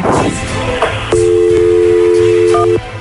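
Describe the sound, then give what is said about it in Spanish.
A steady telephone dial tone hums for about two seconds over faint background hiss, with a couple of brief dialing beeps near the end before it cuts off, as a call is placed from an unblocked number. “Vamos a marcarle nosotros con el número desbloqueado para ver si nos explica la razones por las cuales no te quiere contestar el teléfono.”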